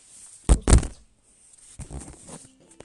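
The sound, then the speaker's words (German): A mobile phone drops with two quick, heavy thuds, followed by a softer stretch of clattering and knocking as it settles; the phone keeps falling down. “Mein Handy fällt, halt, fällt halt gerade ganze Zeit über runter.”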